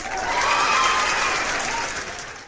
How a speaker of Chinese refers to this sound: 我们是先鼓掌后欣赏。